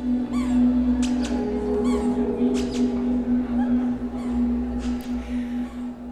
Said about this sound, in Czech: Teď jste slyšeli projít pískací boty, které byly součástí jedné z modních kolekcí, které se představily minulý týden v Praze v divadle X10 v eh, Dupu v podzemním prostoru na Pražské národní třídě.